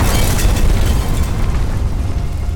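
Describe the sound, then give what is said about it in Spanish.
A sudden earthquake jolt strikes a room during a conversation: a deep, sustained rumble with a heavy jolt, loud low-end shaking and crackling debris noise running steadily throughout, with no voices. “En ese momento, una tremenda sacudida interrumpió la conversación y alguien en la sala gritó: ¡Terremoto!”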